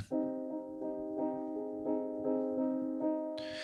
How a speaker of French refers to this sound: là, mon piano, il est feutré. Sauf que de l'enregistrer à ces distances, je vais pas avoir assez de volume, donc je vais me rapprocher.